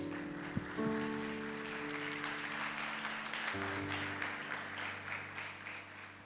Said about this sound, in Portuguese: Dá um beijo na tua Bíblia. E uma salva de palmas à palavra de Deus.